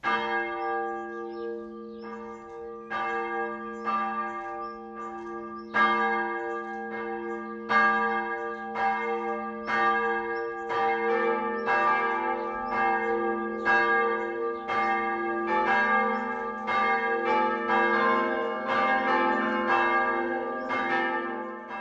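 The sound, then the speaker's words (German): The three bells of the Protestant Margaretenkirche in Roßfeld, Coburg district, Upper Franconia, Germany, ring the 12 o'clock midday peal, overlapping in a steady, rhythmic sequence of resonant strikes with long ringing tones, loud, with no voices. The bells come from three centuries, the largest from 1674. “Das harmonische Geläut der evangelischen Margaretenkirche von Roßfeld im Landkreis Coburg lässt nicht erahnen, dass die drei Glocken aus drei Jahrhunderten stammen.”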